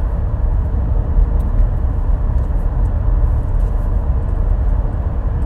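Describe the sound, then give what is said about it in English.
A steady, loud low rumble of road and engine noise fills a truck cabin, a constant drone with no breaks and no voices. “I would not be talking into this fucking phone, losing my shit in my truck.”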